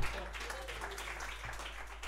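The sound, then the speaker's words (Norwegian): A steady, fairly quiet patter of audience applause, dense and continuous for a couple of seconds, over a low background hum. “Mm, det er lov å få en applaus på den.”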